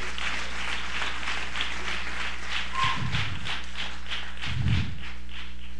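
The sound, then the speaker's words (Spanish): An evangelical Christian audience applauds the King of Glory in a steady, dense patter of many hands clapping for several seconds. Two brief low thumps punctuate the clapping partway through, and no one speaks. “Démosle un aplauso al Rey de la Gloria.”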